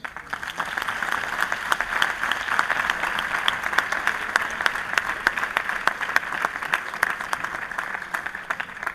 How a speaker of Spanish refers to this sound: Rogamos apagar los celulares y lo recibimos al padre con un fuerte aplauso.